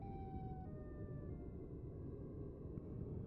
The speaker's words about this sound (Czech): Pouze slyšel vzdálenou ozvěnu sirény.